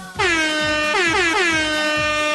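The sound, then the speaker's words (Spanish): A loud, blaring air horn sound effect repeats in rapid bursts, about four stuttering blasts in a row, piercing with no voices over it. “Ajá, deberías poner esa bocina cuando ahorita, a los importantes.”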